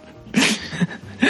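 A close, forceful sneeze bursts out, followed by a couple of shorter, sharp sneezy exhalations in quick succession, with no talking around them.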